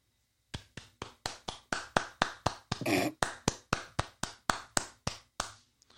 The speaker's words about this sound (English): that was me clapping for getting hours back.